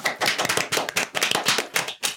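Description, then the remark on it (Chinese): A burst of hand clapping welcoming a first guest, a quick irregular run of sharp claps lasting about two seconds with no talking over it. “好啦，那这么多集了，这次讲到原住民的这主题，我们第一次请到嘉宾，拍手！”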